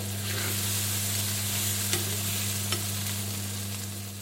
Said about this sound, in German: Ist das Essen schon fertig? Ja, ja, gleich. Nimmst du da etwa das gute Salatbesteck zum Umrühren? Nein, nein, das ist das schlechte Salatbesteck, das von deiner Mutter.